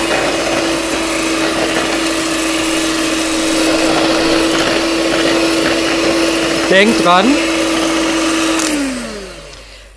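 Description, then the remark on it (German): An electric mixer on a higher speed setting whirs loudly and steadily, whipping cream, its motor pitch wavering briefly before it spins down and stops near the end. A person speaks over the noise. “Kann zwar mit der Hand schlagen, aber das habe ich mir abgewöhnt.”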